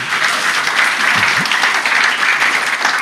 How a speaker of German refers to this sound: Martin kriegt einen riesen Applaus, oder?